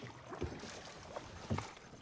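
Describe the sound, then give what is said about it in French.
Oars dip and pull through water in a slow rhythm as a boat without a motor is rowed by arm power in the dark, a couple of distinct splashing strokes about a second apart, over a steady wash of wind and water noise. “Oui, on rame, on rame. Moi, j'ai pas les moyens d'avoir de moteur. Alors tout se fait à la force des bras.”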